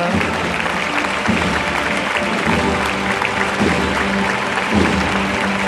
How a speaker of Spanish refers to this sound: El paso ha dado un par de pasitos para atrás otra vez. Y claro, aquí ha saltado la ovación de toda la campana.